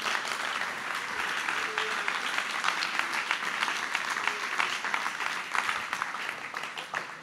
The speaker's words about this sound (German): Ein Applaus